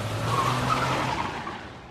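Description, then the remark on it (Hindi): Car tires screech steadily for about two seconds as a car that has slowed down makes a U-turn at a bend off a highway, with a low engine rumble underneath that fades out at the end. The sound is loud, and no one speaks. “mummy ने गाड़ी की रफ्तार धीरे कर दी और अगले मोड़ से यू टर्न ले लिया”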